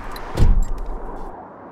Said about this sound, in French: Remonter dans la voiture,